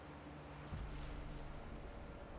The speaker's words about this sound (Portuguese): A única coisa que você vê é o vento gelado. Sente, na verdade, é o vento gelado batendo na sua pele. O barulho do mar perto da costa.